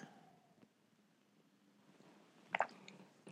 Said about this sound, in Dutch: En eh, neem even een slokje water.